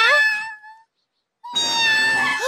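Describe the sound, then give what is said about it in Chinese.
A cat named Milk meows twice with no one speaking: a bright, drawn-out cry that trails off, a second of silence, then a louder, longer, strained meow that bends upward at the end. “好，现在改正错误还不算晚，我得把猫咪还回去。”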